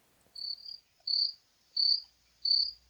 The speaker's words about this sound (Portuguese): Ninguém vai falar, não? Tira esses grilos daqui.